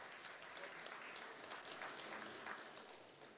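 Steady applause from a crowd, a dense, continuous patter of many hands clapping at an even level throughout, with no voices standing out.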